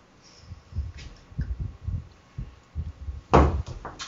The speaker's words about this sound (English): So Tellus opens the door. Very quietly.